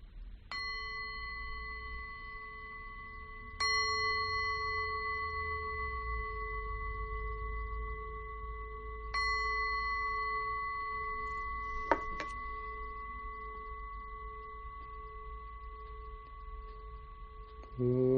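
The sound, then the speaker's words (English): A meditation bell is struck three times to begin a chanting of the three refuges, spaced a few seconds apart, each strike ringing out with a clear, sustained tone that slowly fades. It sounds resonant, with no one speaking. “I'll uh, ring the bell three times to begin.”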